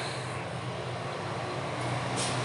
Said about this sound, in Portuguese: Olha o caminhão passando.